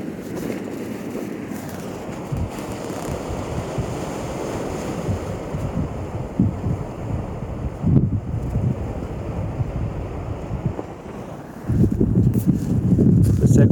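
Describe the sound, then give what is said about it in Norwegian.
Ocean waves surge and rush continuously at a boat harbour with moored boats, with gusty wind buffeting the microphone of a Sony Xperia 1 Mark 4 phone; the roar swells louder near the end. “Kan jo se at alle båtene har det bra hører jo kanskje havet òg her. Bakrygg. Bølgene som bruser.”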